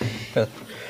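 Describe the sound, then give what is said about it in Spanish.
A single short, sharp sneeze bursts out, brief and forceful, then fades. “¡Salud!”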